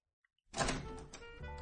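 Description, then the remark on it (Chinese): A door is pulled open after a moment of quiet, with a soft click and then a broad scraping, rumbling slide that keeps going steadily to the end. “拉开门下了楼”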